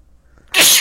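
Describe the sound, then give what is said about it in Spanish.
A single sharp sneeze bursts out after a brief quiet moment, loud, with a hissy, explosive burst that fades quickly. “Salud.”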